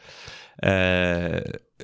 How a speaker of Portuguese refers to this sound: Portanto, arroto, como tu dizes, epá, pá né, às vezes é preciso, não é?